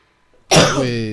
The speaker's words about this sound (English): Sorry. That was well timed. no, it wasn't. You barf over the intro. I didn't barf, I coughed.